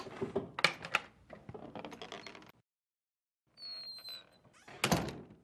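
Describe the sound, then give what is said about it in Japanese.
A door is worked open with a rattling, clicking latch, then after a short pause it creaks on its hinges with a thin squeal and shuts with a firm thunk. No voices. “今開けるから”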